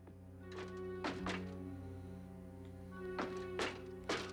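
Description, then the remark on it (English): Giant robot footsteps, like a Transformer's: about six heavy, clanking thuds land at uneven intervals over a steady, low mechanical hum, with no voices. “Ooh, his footsteps are Transformer footsteps.”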